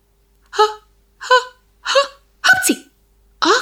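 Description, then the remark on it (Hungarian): A voice acts out a big sneeze: a run of short, evenly spaced breathy vocal bursts, the fourth one louder and noisier like the sneeze itself, followed by one more burst. “Ekkorát tüsszentett, már is egy másik növény előtt termett.”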